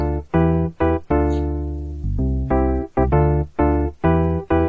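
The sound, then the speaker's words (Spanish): A bright, buzzy melody from a video game's secret stage in level 8, with a film-like tune of distinct sustained notes in a steady rhythm, played loud and clear with no one talking over it. “y hay como una especie de hueco ahí que si te paras ahí de pie pues apareces en una fase secreta que suena una música muy curiosa creo que es una música de cine o, algo de eso no sé”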